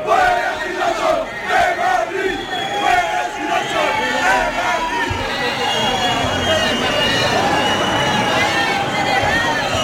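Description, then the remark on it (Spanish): A large crowd at an LGTBI street march in Chueca, Madrid, Spain, shouts and chants slogans in unison, voices rising and falling in rhythmic waves, loud and dense throughout with a constant outdoor hubbub beneath. “Se pudieron escuchar gritos como estos.”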